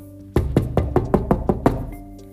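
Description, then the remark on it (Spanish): Someone raps on the door of Rabbi Jacob's house on a Friday afternoon shortly before Shabbat, with a quick, steady series of about eight firm knocks, fairly loud, with no one speaking. “tocan la puerta de su casa.”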